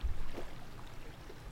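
Water flows steadily with a soft, continuous wash, quiet, with no voices or other distinct sounds over it.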